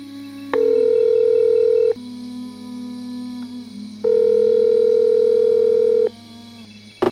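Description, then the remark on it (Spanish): A telephone ringback tone on an outgoing call to a Canarian journalist: two long steady electronic beeps, each lasting over a second with a pause between, clear and prominent over a faint low hum. “al que si os parece le vamos a dar un toque.”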